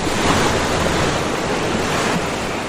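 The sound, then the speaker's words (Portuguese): A steady, full roar of ocean surf washing onto a beach, loud, with no voices, holding a constant rush throughout and easing off only slightly near the end. “Imagine que você está numa praia.”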